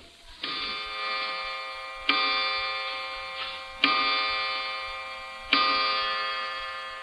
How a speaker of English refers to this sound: Clock striking.